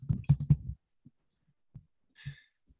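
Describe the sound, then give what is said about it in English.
Keyboard typing while looking up the actress Octavia Spencer: a quick cluster of clacking key presses, then a few sparse, softer taps spaced out over the next couple of seconds. No one speaks. “Let's look it up. Octavia, because you know I'm I'm so quick at typing.”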